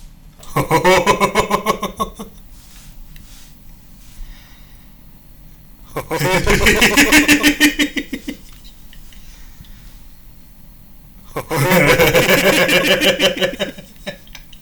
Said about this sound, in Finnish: Otetaan tästä kaikulaite ja ruvetaan sitten äänittämään nauruja. Pistetään kaikulaite isoimmalle kaijulle.